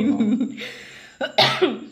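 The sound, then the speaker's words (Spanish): A couple of sharp coughs burst out after a brief vocal sound, with a short pause between them and a raspy, breathy tail on the last one. “Disculpen la tos, están muriendo de la risa.”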